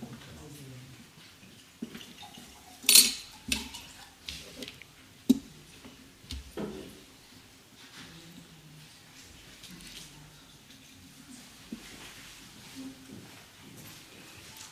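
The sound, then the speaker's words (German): A fresh glass for Minister Mayer is set down with a sharp clink as fresh water is brought, followed by a few lighter taps and knocks, then quiet rustling and faint handling noises over a low room hum. “er kriegt auch ein frisches Glas.”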